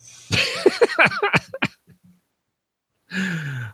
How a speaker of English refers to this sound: oh, sorry for folks for if I coughed into the mic there.